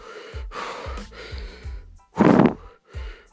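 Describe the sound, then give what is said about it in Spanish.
A person takes a quick series of deep, heavy breaths, taking in more and more air, five or so airy pulls in a row, with one especially loud, forceful gulp of air near the end. “Empiezas a tomar aire y más aire.”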